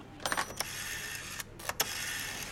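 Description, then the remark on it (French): A telephone handset is lifted and a number dialed as Taverneau calls Jean Drucker: a quick series of sharp mechanical clicks and rattles over a faint steady hiss, with no voices. “Taverneau décroche son téléphone pour appeler Jean Drucker.”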